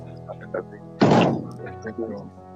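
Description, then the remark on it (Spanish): A door slams shut with a single loud, sharp bang that rings out briefly, while faint voices murmur in the background before and after. “Otro portazo.”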